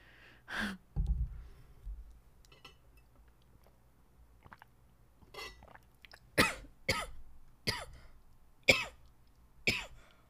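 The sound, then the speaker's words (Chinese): A run of harsh, dry coughs, about half a dozen sharp bursts spaced unevenly, after an earlier throaty cough and some quieter breathy sounds. No one speaks. “完了，连咳嗽都录进去了。”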